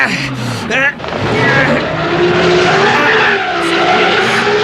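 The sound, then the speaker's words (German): A car engine revs hard and steadily while its wheels spin and churn, stuck in mud in a tropical rainforest, a loud, continuous grinding roar with a rising whine near the start. “Die Räder stecken im Schlamm fest.”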